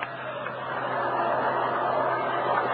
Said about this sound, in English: Well, that's the trolley over on Aspen Street.